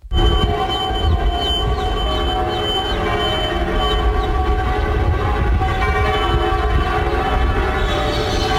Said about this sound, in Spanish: Sharon Stone reporting from Seville, Spain. Esto es Las Campanadas de la Giralda y ella diciendo que está aquí en Sevilla.